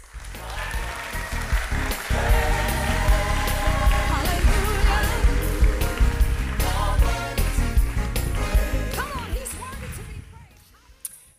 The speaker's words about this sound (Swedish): Och här kommer han som har fått ett så enormt inflytande på vår värld. En applåd för Jesus Kristus!